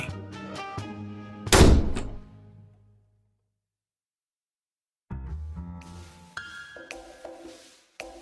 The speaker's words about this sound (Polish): Po tych słowach wyszedł z mieszkania, głośno zatrzaskując za sobą drzwi.